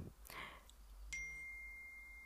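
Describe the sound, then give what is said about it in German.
The speaker's own mobile phone gives a notification chime once, a bright electronic tone that rings on steadily, with a brief muffled bump before it and no talking over it. “jetzt mein, mein Handy, egal.”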